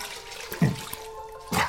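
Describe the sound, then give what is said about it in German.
Water splashes during a man's morning wash with cold water and no soap, with a steady running hiss broken by two brief, louder splashes, one early and one near the end. No one speaks. “Kaltes Wasser, keine Seife, jeden Morgen.”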